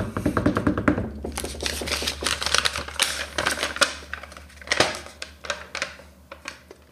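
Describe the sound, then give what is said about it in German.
A rapid drumroll tapped out on a hard surface: a dense, fast clatter of sharp clicks, fairly loud, running for several seconds with uneven bursts and no voices. “Trommelwirbel.”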